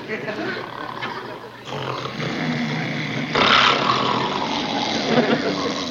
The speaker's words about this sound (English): the scene changes to inside the Darling cabin with everyone sleeping in beds all in one room except for Charlene and Dud. Andy and Barney are sitting in chairs trying to sleep while the Darling family snores.